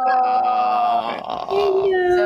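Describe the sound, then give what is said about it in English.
A male pet cat named Robbie, adopted about six months earlier, gives two long, drawn-out meows, loud and steady in tone. The first is higher pitched and the second, after a short break, slides lower. “Oh, he's like saying hi.”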